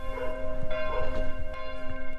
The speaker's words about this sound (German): In Hunschbach läuten die Kirchenglocken irgendwie besonders lange.